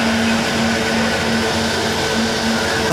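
coffee machine running

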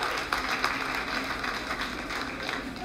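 audience clapping

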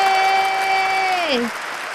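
audience applause welcoming guests

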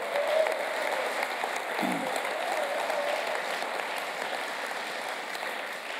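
applause

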